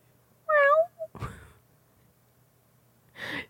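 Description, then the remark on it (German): A voice imitates a single short, quiet cat meow heard from under a basement staircase, thin and slightly wavering, followed by a couple of soft breathy exhalations with silence in between. “Ein mhm. ganz leises Mounzen.”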